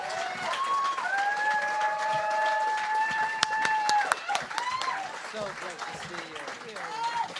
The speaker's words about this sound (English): I think some of the scenes were shot in this very room. Start applauding right now. Come on, everybody. Jessica Kirson, Jessica.